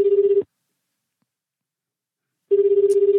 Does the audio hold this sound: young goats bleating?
no